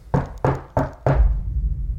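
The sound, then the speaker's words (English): Four firm knocks on freshly carved wooden timber in a steady rhythm, each a resonant thud, fairly loud, with a low hollow rumble lingering after the last one. “At last, the sound of the knocks”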